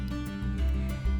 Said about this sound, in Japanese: えー、今朝もねもうセミが鳴いております、